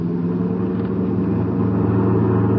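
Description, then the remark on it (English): A car engine rumbles steadily, a low droning roar that builds slightly as the car picks up speed to go around a bus on a road, with no voices over it. “Hold on, Sheriff. We're going around the bus. Then we're going to roll.”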